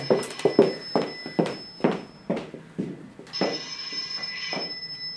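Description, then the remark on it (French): A run of sharp, evenly spaced thumps like hurried steps, then the speaker's telephone starts ringing with a call from their son: a steady, bright electronic trill that carries on to the end, moderately loud. “Mon téléphone.”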